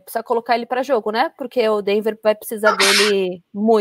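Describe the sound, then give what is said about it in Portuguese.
A single sharp, hissy sneeze bursts out partway through, overlapping a man who keeps talking steadily. “Saúde!”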